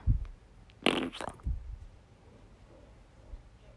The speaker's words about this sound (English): Sorry, I just realized that you're listening to this and then you're just going to hear a big fart sound in HD.